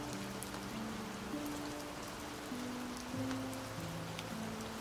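light rain falling

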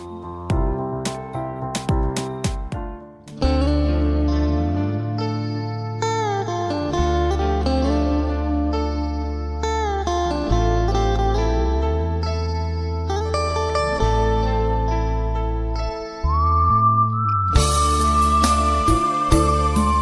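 song played

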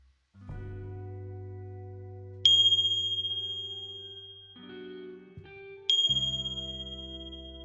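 meditation bells ringing

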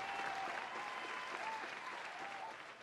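applause sound effect

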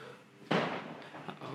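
firecrackers bursting outside

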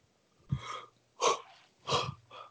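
person yawning

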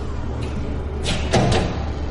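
door opening

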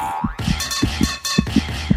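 irregular heartbeat

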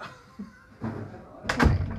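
door being shut

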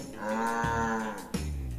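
cow mooing

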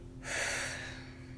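breathing out

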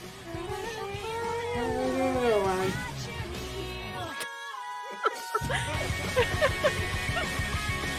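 cat meowing

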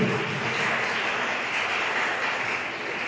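audience applauding

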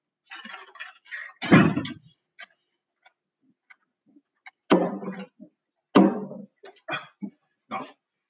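drinking glasses clinking

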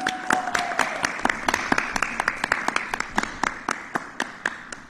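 audience applause

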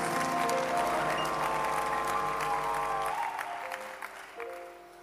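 audience clapping hands

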